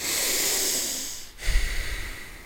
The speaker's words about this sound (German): Hier, die reden, da, die schnaufen, witzig, gell?